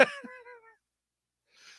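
One loud sneeze: a sharp burst trailing into a brief voiced tail, then a pause before a faint, breathy sniff.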